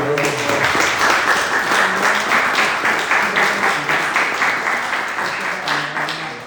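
A crowd applauds steadily for several seconds, a dense wash of many hands clapping that stays loud throughout and eases off slightly toward the end, with faint voices murmuring underneath.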